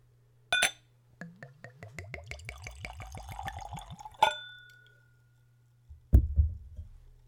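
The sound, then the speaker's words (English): Whiskey glugs from a bottle into a clean Glencairn nosing glass, poured neat at room temperature, in a steady run of rhythmic gulps lasting about three seconds, bracketed by light glass clinks, then a soft thud of the bottle being set down. “So let's give it a pour.”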